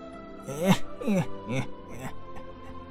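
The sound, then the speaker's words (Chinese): An old man's hoarse, croaking cough rings out suddenly inside a great hall: four loud, throaty bursts about half a second apart, then two fainter ones trailing off, with no talking. “苍老的咳嗽声突然在大殿内响起”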